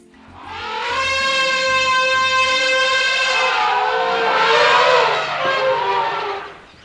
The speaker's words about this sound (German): Oh, was ist denn jetzt los? Gerade wird sie aber ganz schön laut und wuselig. Es sind nämlich noch ein paar andere Elefanten dazugestoßen. Das sieht echt lustig aus. Fast so, als würden sie sich gegenseitig begrüßen und Hallo sagen.